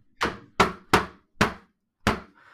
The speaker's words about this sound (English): knocking